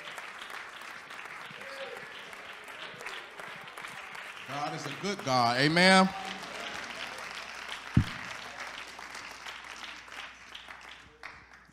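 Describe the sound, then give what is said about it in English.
A church audience claps steadily throughout on a Wednesday night, a dense wash of hand claps welcoming a preacher coming up to deliver the word, while a man's voice speaks loudly over it partway through and a single sharp thump lands near the end. “Go ahead and clap your hands for the Lord.”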